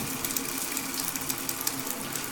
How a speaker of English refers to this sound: Defeated, he made his way to the shower. He turned it on and hopped in